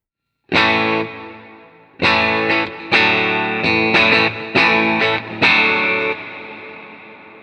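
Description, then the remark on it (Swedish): A bright, buzzy instrument tone run through an exciter effect preset plays a loud, harmonically rich chord phrase in uneven bursts, then rings out and fades over the last second, with no talking. “Nästa ljud heter Exciter.”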